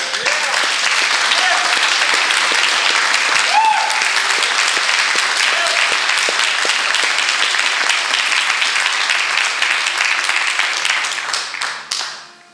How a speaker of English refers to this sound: I know some of y'all have been trying to clap and it's like, do I clap? Do I not clap? I don't want to clap really for them. I want to clap for the Christ in them.